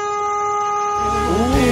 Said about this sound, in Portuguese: Se alguém buzinar, eu bebo hoje.